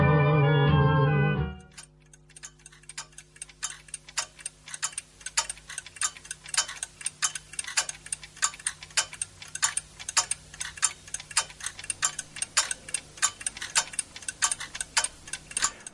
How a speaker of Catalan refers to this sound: Quan escolto aquestes agulles del rellotge, vol dir que arriba el nostre moment.